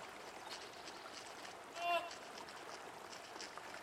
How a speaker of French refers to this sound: Il a la queue plate, des grandes dents et c'est un très bon nageur. C'est le castor, ou plutôt une famille de castors, car ces gros rongeurs semi-aquatiques vivent en famille près du barrage qu'ils ont construit.